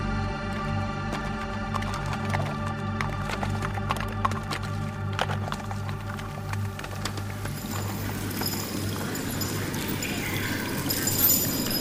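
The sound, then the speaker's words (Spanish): A horse's hooves clip-clop in an uneven series of sharp knocks over a steady droning hum, and the hoofbeats fade into a broad rushing noise during the last few seconds. “contarle de los misterios, de los confines de las pampas y cruzar sus aguas a caballo.”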